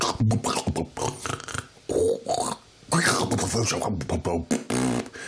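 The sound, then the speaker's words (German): A person vocally imitates irregular, choking sleep apnea snoring, with uneven bursts of rough, guttural breathing and gasps broken by brief pauses, fairly loud, with no steady rhythm. “Wenn es so rhythmisch ist, Schlafapnoe ist schlimm, weil das dann kein rhythmisches Schnarchen ist, sondern”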